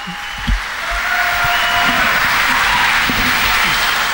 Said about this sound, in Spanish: Y esa es la ovación que estamos escuchando hacia Donald Trump.